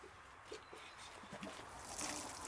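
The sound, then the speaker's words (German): Water is poured from a watering can, trickling in a soft, continuous splashy stream, fairly faint, growing a little fuller toward the end, with faint low murmurs underneath. “Jetzt säuft hier ab.”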